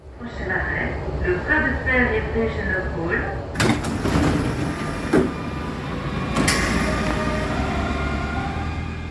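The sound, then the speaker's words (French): An RER line D commuter train at the station of Évry-en-Essonne, France: a tonal electric whine at first, then several sharp door clunks over a steady mechanical rumble, with muffled voices in the background. “Évry-en-Essonne, sur la ligne D du RER.”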